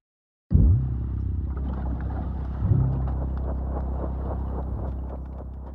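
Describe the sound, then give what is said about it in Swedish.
A car drives along a road, leaving Västerås toward an increasingly sparsely built-up landscape. Its steady low engine rumble and road noise start abruptly and hold at a constant level, fairly loud, with no voices. “När Göran och Linus lämnar Västerås styr de bilen med bombkulan mot ett allt mer glesbebyggt landskap.”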